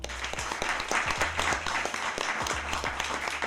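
A crowd applauds steadily, dense overlapping claps filling the space at moderate loudness, with a low hum underneath and no clear voices on top.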